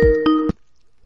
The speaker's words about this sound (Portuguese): Porra, o Skype também, hein, cara? Ô, oh, Skype, hein? vai dar alto pra caralho a chamada.